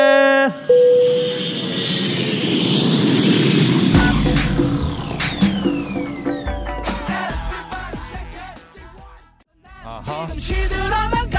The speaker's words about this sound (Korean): 자 그럼 비행기 이륙합니다. 갑니다.